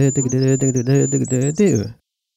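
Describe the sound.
A person imitates a goldcrest's very bright, high song with the voice, copying its rhythm in quick repeated pulsing syllables at a much lower pitch, fairly loud for about two seconds.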